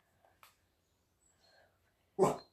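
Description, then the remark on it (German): A dog named Blue gives one short, loud bark near the end, preceded by a few faint, scattered sounds and quiet stretches. “Blue, hör auf zu bellen.”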